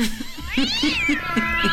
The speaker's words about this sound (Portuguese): Ah, você esqueceu do gato também. Ah, tem o gato, exatamente.